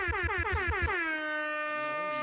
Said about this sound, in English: So, you know, everybody who's going out to see movies, you know, you get an air horn.